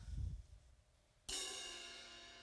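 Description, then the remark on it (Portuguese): A soft low thud, then a single cymbal struck once, its bright shimmering wash ringing out loudly and decaying slowly for over a second with no other sound. “E esse é o retinir de um prato.”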